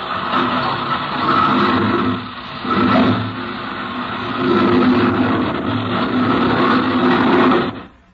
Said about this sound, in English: Captain Bellows climbed into the cockpit, and the lieutenant spun the propeller.